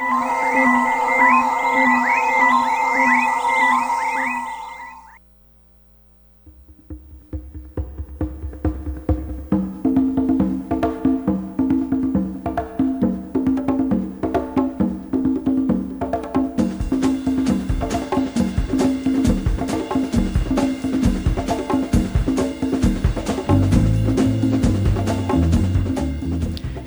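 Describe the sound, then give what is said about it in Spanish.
Late-1960s Latin rock instrumental opens with eerie, sustained gliding tones, pauses briefly, then drums and bass enter and build into a loud, dense, driving full-band groove with no vocals. “Esto suena a hipismo, suena a Gustock, suena a esos sesentas que dieron tanto a la imaginación de la academia, de, las artes.”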